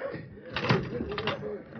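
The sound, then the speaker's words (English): A stagecoach door opens with a couple of quick wooden clunks and rattles, opened to let a judge step out, while voices talk faintly underneath. “Yeah, I'll open the door and let the judge step out and stretch his legs.”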